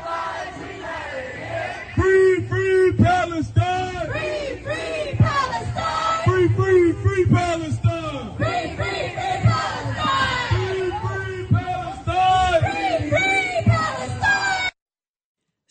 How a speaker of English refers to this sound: And here is some Black Lives Matter protesters listening to them. This is in Beverly Hills, California.